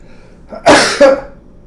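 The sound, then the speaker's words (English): A single loud sneeze: a short breathy intake, then a sharp, explosive burst that trails off with a brief second puff. No one speaks. “Gesundheit.”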